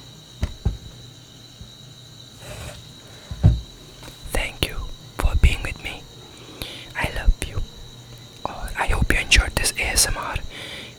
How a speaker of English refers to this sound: still have a, a, a spray. Let's try some deodorant.